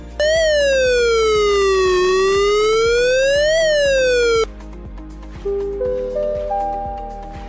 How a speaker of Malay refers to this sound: Keupayaan bunyi siren ini boleh menjangkaui 1 hingga 2 kilometer bergantung kepada keadaan topografi setempat dan terdapat dua jenis siren. Pertama, bunyi siren amaran.